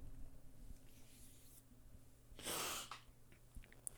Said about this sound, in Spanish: Estoy aquí tocando el micro, no sé si se está escuchando, pero creo que así lo tengo muchísimo mejor posicionado.